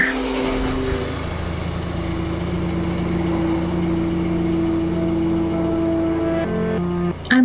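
A car engine idles with a steady, low hum and an even mechanical drone, fairly loud. It runs continuously, with a slight shift in tone near the end.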